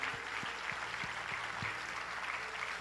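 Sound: audience applauding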